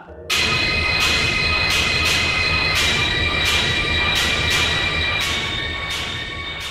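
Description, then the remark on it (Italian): A distorted industrial horror video game soundtrack played back from music software with the volume turned up: a loud, harsh wall of grinding noise with sustained metallic drones, punctuated by regular clanging hits roughly every second. No voices. “Questo è il suono di Silent Hill.”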